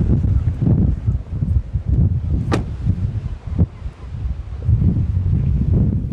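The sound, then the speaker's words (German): Strong wind at the southwesternmost point of Africa on a sunny day buffets the microphone despite its windscreen, in heavy, rumbling gusts that rise and fall continuously, with a few sharper bursts of rushing noise breaking through. “Hier ist jetzt so viel Wind, dass auch der Windschutz vor meinem Mikrofon nichts mehr ausrichten kann.”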